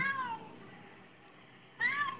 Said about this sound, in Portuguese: É um gato. Miou do nada. Ele viu o humano e miou, miou pra disfarçar de novo.